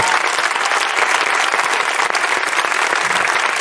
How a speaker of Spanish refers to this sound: y me encantaría que también tocaran el resto de la banda de … que están aquí. Fortísimo aplauso para ellos, por favor.